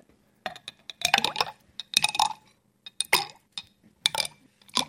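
Small stones clink and plop one after another into a narrow tube of water, a series of sharp glassy knocks with brief watery splashes, spaced irregularly with quiet gaps between; each stone displaces water so the level rises enough to take out a ball.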